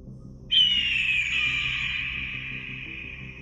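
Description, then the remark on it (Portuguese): A single loud, piercing screech from an immense bird with golden feathers and a crimson-red breast circling overhead bursts in suddenly and stretches into a long, slightly falling cry lasting a few seconds, over a low, steady rumble in the background. “quando ouviu um piado agudo e forte.”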